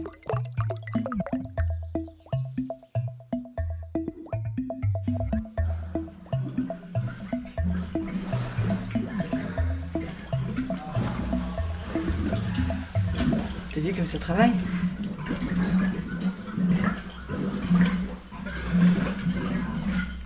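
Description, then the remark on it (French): Grape juice bubbling as it ferments in barrels in Claire's wine cellar: a steady run of deep, rhythmic glugs and gurgles, giving way to a denser, frothy wash of fizzing liquid. “Les tonneaux se mettent à chanter, les bulles de la fermentation.”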